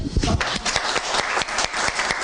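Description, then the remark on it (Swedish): An audience applauds a speaker at the close of an evening event, a dense patter of many hands clapping at a steady, moderately loud level throughout, with some sharper individual claps standing out. “annars så tror jag att vi tackar för ikväll och tar en applåd för dig.”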